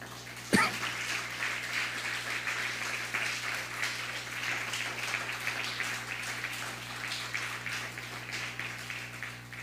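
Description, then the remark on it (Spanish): An audience breaks into sustained applause for God (the Eterno), a dense, steady wash of many hands clapping that begins with a sharp burst and holds at an even level, with a low hum running underneath. “El Eterno, ¿por qué le das un fuerte aplauso al Eterno?”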